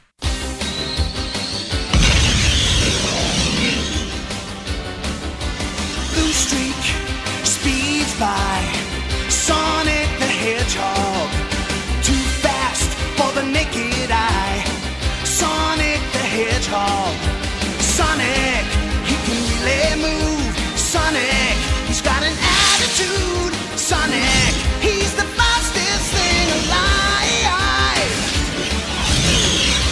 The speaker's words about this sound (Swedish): Kan vi inte oh, bara lyssna shit. på den introlåten? Innan vi börjar snacka om spelet. Ja, gör det. Den är så jävla bra, vi måste spela den.